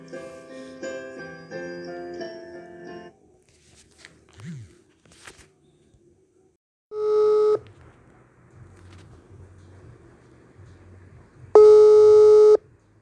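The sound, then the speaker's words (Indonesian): A rapid run of telephone dialing tones, then silence before two loud, sustained ringing tones separated by a few seconds' pause, with faint low background sound in between. “oke kita telepon dulu ya lewat telepati nih tungguin”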